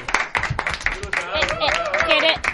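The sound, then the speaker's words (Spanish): A short burst of lively applause from a small group on a radio programme, with quick overlapping claps and voices cheering over them, lasting a couple of seconds. “Un Ford aplaudiment de radio, por favor.”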